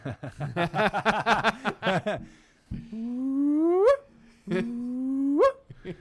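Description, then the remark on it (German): A person vocally imitates a hyena: a burst of rapid, giggling yelps, then two long rising whoops that swoop upward in pitch and cut off sharply. Fairly loud, with no other talk. “Kannst du ein typisches Geräusch einer Hyäne nachmachen?”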